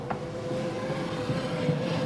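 A steady mechanical whir from an automatic door ramp extending at the push of a button on an autonomous shuttle vehicle (Holon Mover), a ramp that lets wheelchairs and prams in; a constant motor hum over rumbling background noise for about two seconds, with no voices.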